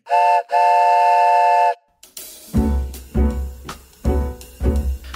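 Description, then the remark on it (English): A loud steam train whistle sounds in two blasts, a short toot then a long held one, followed by the rhythmic chugging and hissing of a locomotive pulling away. No one speaks. “All aboard the purpose train.”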